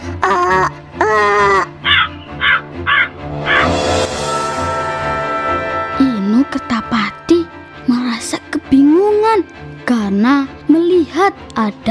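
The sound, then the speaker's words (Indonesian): A voice imitates a talking crow, giving a run of short, loud, harsh caws in quick succession, followed by more drawn-out croaking, squawking vocal sounds. “Namun, Inu Kertapati diketahui oleh nenek sihir dan nenek sihir berubah menjadi burung gagak yang bisa berbicara.”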